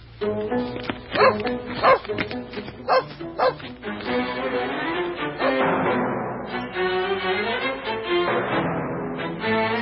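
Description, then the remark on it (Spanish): A tracking dog following a creosote scent trail barks loudly, a handful of sharp bow-wows in the first few seconds, then keeps up a more continuous stretch of yipping and whining vocalizations. “Con la nariz pegada al suelo y la cola enhiesta, salió pataleando en pos de la huella, haciéndonos caminar a todo lo que daban nuestras piernas.”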